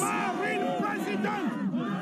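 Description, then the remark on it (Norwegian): A crowd of protesters in France shouting together against National Front leader Marine Le Pen during her regional election campaign, some calling for her removal; many raised voices overlap in a loud, continuous chant-like roar with rising and falling pitch throughout. “Mens noen skriker ut at hun må fjernes”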